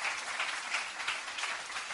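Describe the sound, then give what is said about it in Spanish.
An audience applauds the Lord in thanks, a dense, steady patter of many hands clapping at once that holds evenly for a couple of seconds with no voices standing out. “¿Cuánto le pueden dar un aplauso al Señor y dar gracias por cada circunstancia que vivimos?”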